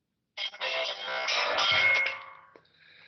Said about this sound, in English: Sorry about that phone in the background.